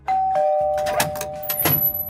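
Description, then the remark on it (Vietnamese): A doorbell chime rings out with sustained bright tones, overlaid by a few sharp knock-like hits on a door, a brief sound effect with no talking. “chúng ta hãy cùng gõ cửa nhé.”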